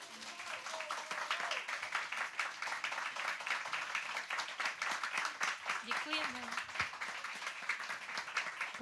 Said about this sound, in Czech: tak ten potlesk je velmi živý, velmi vroucí v Radiokafe Vinohradská 12 pro muzikálovou herečku Vendulu Příhodovou.